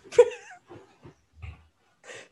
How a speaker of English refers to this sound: sorry, the dog.